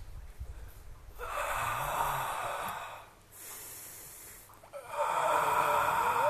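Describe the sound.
A person imitates the ragged, gasping breathing of someone out of breath, three long noisy airy inhales and exhales, each strained and rasping with short pauses between.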